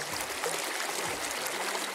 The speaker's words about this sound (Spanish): Y para comenzar, aquí tienen el susurro de un riachuelo. Escuchamos efectivamente el sonido del agua correr por los parlantes.